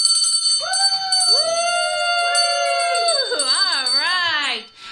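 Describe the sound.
A bell rings continuously with a bright, steady high tone, rung in celebration for a founder during a pledge drive, while several voices whoop and cheer over it, their pitches rising and wavering, before everything cuts off abruptly at the end.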